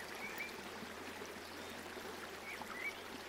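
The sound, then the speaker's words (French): A river flows steadily with a constant, broad rushing and gurgling of water, even throughout, with a few faint high chirps above it and no voices. “remarquez la rivière qui continue de s'écouler inlassablement.”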